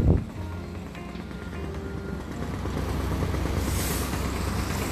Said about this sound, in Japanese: あとねなんかね工事やってるみたいでガタガタガタガタガタガタガタガタってねあのその工事の音がいろいろあってねプシュッとか言ってますけど素敵ですよねこういう工事の踊ってね